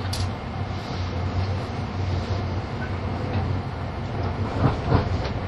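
A 683 series limited express train, Shirasagi No. 14 running from Toyama to Nagoya, arriving at track 4 of Ogaki station, gives off a steady, dense rumble with a low droning hum underneath and a few soft clanks near the end. No one speaks.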